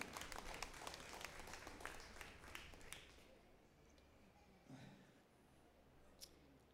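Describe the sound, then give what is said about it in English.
An audience claps together in a dense burst of applause for about three seconds, then the clapping fades into a few scattered claps and faint room noise. A church audience in a metal building is applauding the Lord for the rain. “Give the Lord a hand for the rain, all right?”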